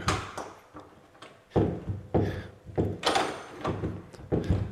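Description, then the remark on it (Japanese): A stuck door that will not open is tugged and rattled again and again in an old, dusty house in a quiet residential area of Chiba Prefecture, Japan, giving a string of heavy thumps and clunks at an uneven pace, with brief quiet gaps between the jolts. “え開かないんだけどそんなことある”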